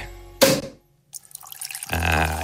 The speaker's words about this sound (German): Der Korken knallt, feine Nebel steigt aus der Flasche und Blätterli steigen im Glas auf wie eine Perlenkette.